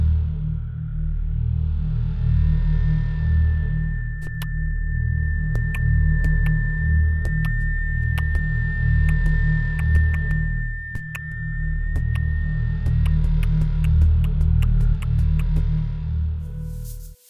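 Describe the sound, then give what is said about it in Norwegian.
A homemade beatbox-style rhythm: steady, booming low thumps with sharp clicks layered on top, looping continuously and loudly, with a thin sustained high tone running through the middle of the pattern. “Kanskje ikke akkurat til min hjemmesnekrede beatbox-rytme, men du skjønner hva jeg mener.”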